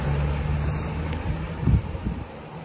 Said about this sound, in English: Boy, just feeling the wind blow on my face now